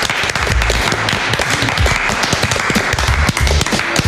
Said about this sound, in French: Je pense qu'on peut l'applaudir.